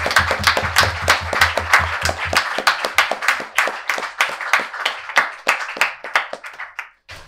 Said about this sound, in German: Applaus